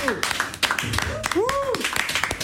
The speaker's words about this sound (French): Je vais entendre des applaudissements dans ce studio.